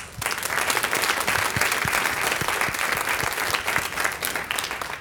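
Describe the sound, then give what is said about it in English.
A crowd of people applauding a choir claps steadily for the whole stretch, a dense, even patter of many hands that holds at a fairly loud, sustained level without words. “Did not they sound good? Let's give them a hand.”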